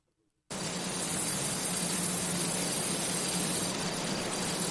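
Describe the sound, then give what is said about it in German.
Cornfield ambience played from a sleep-sounds app: after a brief moment of silence, a steady, dense rustling hiss of wind through tall stalks begins and holds evenly throughout, with a faint low hum underneath and no voices. “Oder das hier ist ein Kornfeld.”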